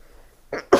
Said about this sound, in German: Entschuldigung. Entschuldigung. Gesundheit. Ah, du bist auch ein dreimal Nies-Typ. Äh, das kann sich auch, also niesen kann ich tatsächlich unendlich oft.